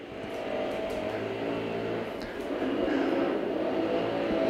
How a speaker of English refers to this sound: There's a dude with a leaf blower outside of my window right now. Holy crap.